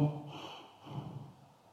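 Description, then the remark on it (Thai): A short, forceful breath like a sigh is pushed out sharply through the nose, demonstrating the first type of breath, short and strong, then a second quicker exhale follows, fairly quiet with no talking. “ให้รู้จักลมหายใจประเภทที่หนึ่งก่อนนะ คือลมหายใจสั้นและแรงเหมือนถอนหายใจ ลมหายใจสั้นและแรงเราอาจจะหายใจแบบนี้”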